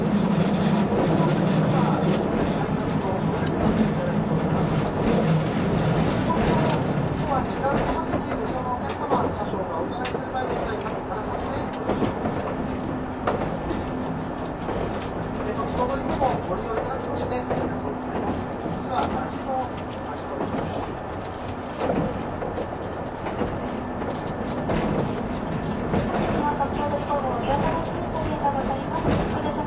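A 185 series express train, the Odoriko No. 106 running between Izukyu-Shimoda and Atami: a steady, loud rumble with a low droning hum and intermittent clacks of wheels over rail joints throughout, with no clear speech.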